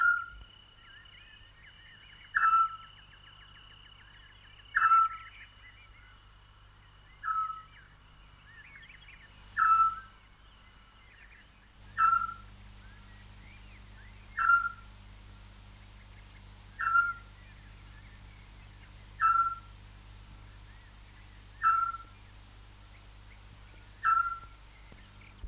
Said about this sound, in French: C'est un hibou, pas plus grand qu'un merle. Il vit dans la nuit. Il dort pendant la journée.